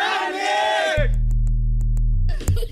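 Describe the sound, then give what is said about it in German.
A group of boys shout together at full volume in one loud, sustained cry lasting about a second, then it cuts off abruptly into a steady low musical drone. “Lass mal alle rufen, lass mal alle rufen. Ganz laut zusammen.”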